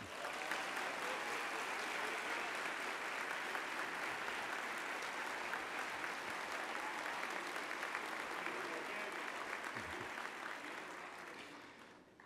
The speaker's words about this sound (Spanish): Por favor, que ese aplauso se extienda